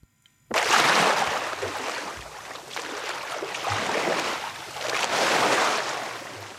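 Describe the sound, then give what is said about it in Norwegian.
Ocean waves wash in and retreat in broad, rolling surges of noisy hiss, swelling and fading about three times, fairly loud with no voices. “Lyden av selve havet og med bølgene inn i studio,”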